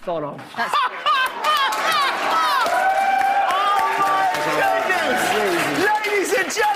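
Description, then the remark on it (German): A large audience cheers and screams loudly and continuously for performer Leo Suchard, many excited voices overlapping, with scattered clapping mixed into the roar throughout. “Hier nochmal Leo Suchard von eben, dem das Publikum einfach zu Füßen liegt.”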